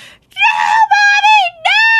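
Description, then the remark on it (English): A voice imitates a young girl screaming bloody murder and wailing in three loud, drawn-out, high-pitched cries, with brief breaks between them and no other sounds. “she screamed, screamed bloody murder.”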